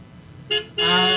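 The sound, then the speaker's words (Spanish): A car horn honks twice: a quick short beep, then a longer, loud sustained blare that runs to the end, with no talking over it. “¿Por qué no suena como el claxon de la camionetita?”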